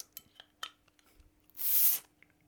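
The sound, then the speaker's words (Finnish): A few light glassy clinks and taps on a beer bottle, then the cap comes off with a loud, sharp hiss of escaping gas lasting about half a second, followed by faint fizzing. “Korkki auki vaan. Joo. Katsotaan kuohuuko.”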